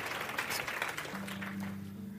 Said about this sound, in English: That was awesome. Can I get a round of applause for him, please? That was awesome. Man.